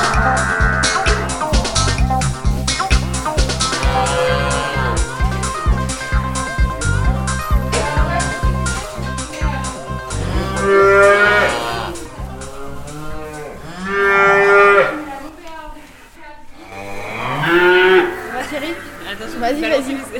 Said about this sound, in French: nous revenons à la stabulation rencontrée Thierry. Une surprise nous attend, on entend une musique sortir de la salle de traite